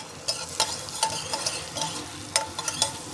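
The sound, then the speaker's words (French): Vegetables sweat without browning in a hot pan with thyme and bay leaf for a fish stock in Provence, a steady crackling hiss broken by several sharp scraping clicks as they are stirred, with no voices. “Pendant une minute, on fait suer, donc sortir toute l'eau des légumes.”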